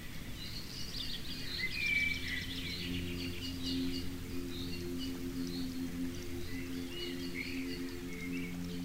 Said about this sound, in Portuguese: Finalmente, um jardim deve agradar nossos ouvidos também, através do canto de seus pássaros e do murmúrio suave da água em suas fontes.